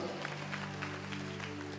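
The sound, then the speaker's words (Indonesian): An audience applauds with a dense, steady patter of clapping, while a sustained low tone hums underneath throughout the short stretch. “Tepuk tangan yang dan amin.”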